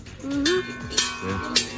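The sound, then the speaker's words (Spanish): A bell seen from above a labyrinth rings with three bright, metallic clangs about half a second apart, each leaving a sustained ringing tone; faint voices murmur underneath. “Es la campana que se ve.”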